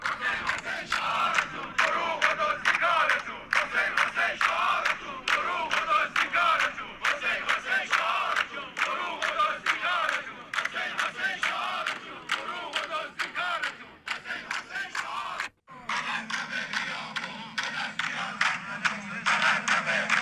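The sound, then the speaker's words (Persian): A large crowd of retirees chants loudly in unison at a protest in Ahvaz, rhythmic shouted slogans repeating continuously for about fifteen seconds, followed by a brief break and more crowd voices. “اعتراضات معلمان کارگران و بازنشستگان همچنان ادامه دارد و بشنویم صدای اعتراض بازنشستگان رو در احواز.”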